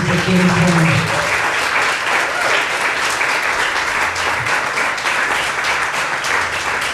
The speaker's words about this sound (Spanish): ¿Cuántos le dan gracias a Dios? ¿Cuántos le pueden dar un aplauso al Rey de Reyes?